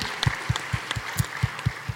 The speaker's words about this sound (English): Can we say a big round of applause for Kaye-Maree? Thank you.